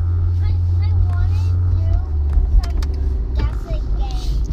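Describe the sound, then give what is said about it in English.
Steady low engine and road rumble fills a car cabin while driving, shifting slightly midway, with faint voices and small chirpy sounds drifting over the drone. “Oh, as you can tell, we have special guests today in the car.”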